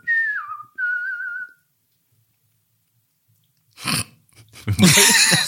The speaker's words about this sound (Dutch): Als jij zegt dat ik mooi kan fluiten, dan zeg ik dat jij ook mooi